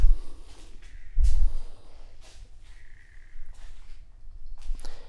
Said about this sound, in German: So. Dann mache ich mir jetzt noch einen Kaffee dazu.